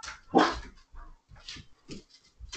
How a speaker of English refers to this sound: He just woke up, so he wants to play. No, he wants to bark at people outside. He just wants to play.